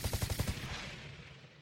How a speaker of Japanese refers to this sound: そう言うと子供の妖怪たちは近くに落ちている小石を持つとおじいさんの後ろの大岩に向かって何度も何度も投げつけた